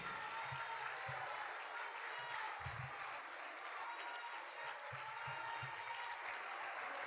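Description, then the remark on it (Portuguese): A church audience claps steadily for several seconds, a dense, continuous wash of applause with a few heavier thumps underneath and no one speaking over it. “Vamos aplaudir, igreja.”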